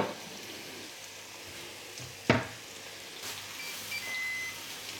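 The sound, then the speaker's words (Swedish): Steady frying sizzle of hamburgers cooking on an OBH Nordica OptiGrill Plus contact grill, with a sharp click partway through and a short, thin electronic beep from the grill near the end, its second-to-last beep. No one speaks. “Där kom det näst sista pipet.”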